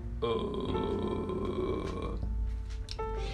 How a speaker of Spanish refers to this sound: Em, cuando estamos en notas más graves, por lo general, si hacemos este sonido como recién levantados, Vamos a ver que nuestra laringe desciende.